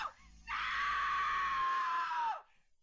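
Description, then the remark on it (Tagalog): A woman outside lets out a loud, sustained high-pitched scream lasting about two seconds, preceded by a brief shorter cry, then cutting off into quiet; it is 4 a.m. and still dark, and she seems to be calling for help. “may narinig akong babaeng tumitili ng malakas sa labas”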